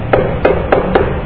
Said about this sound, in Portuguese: Deu na porta.